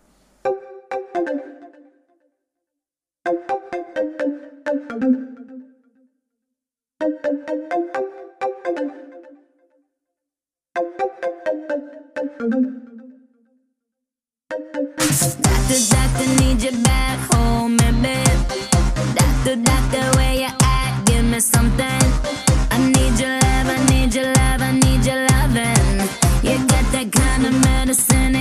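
A dance pop song opens with a bright synth phrase repeated four times, each separated by short silences, before a loud, steady dance beat and full backing burst in and continue.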